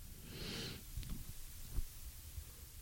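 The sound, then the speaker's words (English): A breathy yawn: a long airy inhale-exhale swelling and fading within the first second, followed by soft low breaths and faint mouth noises, with no talking. “I, oh my god, I'm yawning again.”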